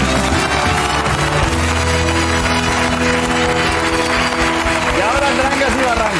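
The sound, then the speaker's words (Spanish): A crowd applauds and cheers steadily for several seconds, a dense, continuous wash of clapping layered over loud music that keeps playing underneath without letting up. The ovation is for Ana Peleteiro. “Esta mujer maravillosa es Ana Peleteiro, por favor, una ovación gigante para ella.”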